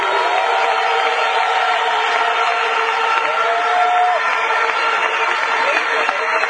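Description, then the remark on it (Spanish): A large audience at an Amway company event applauding steadily to thank the company's staff, a dense, even wash of clapping with cheering and crowd voices mixed in, holding at the same loud level throughout. “Vamos a agradecerles con un tremendo aplauso a todos, a toda esa compañía,”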